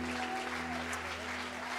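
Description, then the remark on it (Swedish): An audience claps steadily, a dense wash of many hands at an even, sustained level, with a faint low hum running underneath. “Wow, jag ger dem en stor applåd.”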